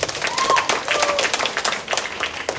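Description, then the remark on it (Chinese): An audience at a company talk applauds steadily to thank the people the presenter on stage has credited, many hands clapping in a dense, sustained patter of sharp claps, with brief faint whistle-like tones threading through early on. “想借由大家的掌声。”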